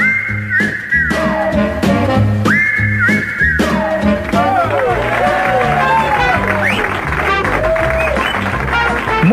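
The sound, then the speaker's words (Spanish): Loud, steady audience applause for participant number one in a quiz game fills the whole stretch, mixed with crowd noise and repeated sliding whistles that swoop downward in pitch, with a low rhythmic thump running underneath. “bien, muchas gracias por los aplausos para el participante número uno.”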